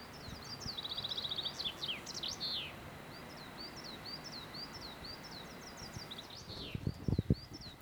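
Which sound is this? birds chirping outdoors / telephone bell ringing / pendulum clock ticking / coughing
birds chirping outdoors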